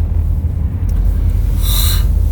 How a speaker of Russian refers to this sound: я зеваю. Я вот почему такое бессвязное бормотание у меня, как вы думаете? Уже ну я не выспался опять.